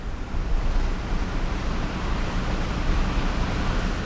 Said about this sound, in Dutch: En om u even te bewijzen dat het echt zo is dat we langs de dijk rijden... zal ik even het raam naar beneden doen. Dat is de zee.